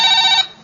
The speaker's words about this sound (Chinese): 电话， 这你你 电话 谁？哦，我的电话。那个，对不起，我先接个电话啊。